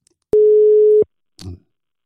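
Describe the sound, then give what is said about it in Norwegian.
A single steady telephone ringback tone sounds loudly for under a second as a call is placed, followed by a brief muffled clunk as the line connects. “Vi ringer”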